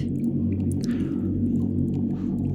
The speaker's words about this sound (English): So as you get into this cave, um, this section of the cave, that humming noise that you keep hearing just gets like overbearingly loud. Like it is, it is scary loud at this point, and you can't see much in this cave.